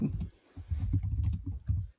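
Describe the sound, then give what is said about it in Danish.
Quick keystrokes clatter on a computer keyboard as someone writes down notes, arriving in busy bursts with a short pause early on before the typing resumes and stops. “Som jeg lige skriver op her.”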